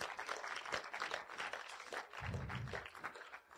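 An audience claps together in a steady, dense wash of applause that holds at an even level for a few seconds, with no voices on top. The applause welcomes a speaker who leads worship and is about to talk about finances.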